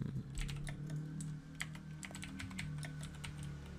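Rapid, irregular clicking of keys on a computer keyboard while searching Google for the Concorde museum, a quick flurry of light taps with brief pauses, over a steady low hum and no talking.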